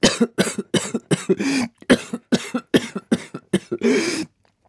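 A violent coughing fit: a rapid string of a dozen or so harsh, loud coughs bursting close by in quick succession, some with strained, rasping tails, before falling silent.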